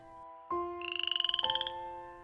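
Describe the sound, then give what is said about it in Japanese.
A frog croaks in a quick, rattling trill of about a dozen rapid pulses lasting roughly a second, clear over steady background tones, with no one talking. “もういいよだって。よし、カエルさんを見つけよう。”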